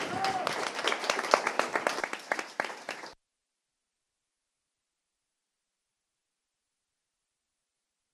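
An audience applauds a person who has just finished and signed a picture, in a dense burst of many overlapping claps, loud and steady for about three seconds before stopping abruptly into silence, ending with a single sharp click.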